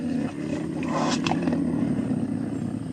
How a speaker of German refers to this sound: Ja, das war die Stimme des Jaguars.